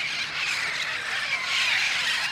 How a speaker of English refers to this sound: This parrot is an avian immigrant that flies back and forth across the border